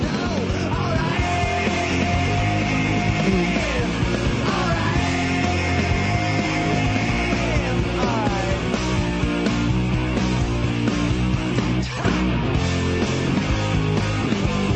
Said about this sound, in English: the way that they do those, those staccato four chords and the fact that this guy had a very … scream on the chorus.